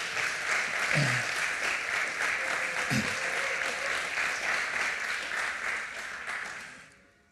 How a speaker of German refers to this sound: Hey, mal einen kräftigen Applaus an unser Worship-Team hier.